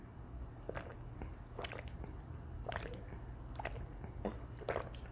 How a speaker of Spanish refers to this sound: permiso que voy a tomar agua a los que me están escuchando.